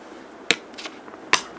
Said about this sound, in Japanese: これはですね、うん、花崗岩の音ですね